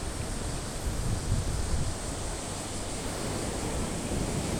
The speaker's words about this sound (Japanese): いやこれ確かにね聞こえますかね波の音がものすごいですね天気はね非常にいいんですけど多分風がちょっと強くて波が出ちゃってるんじゃないかなと思いますね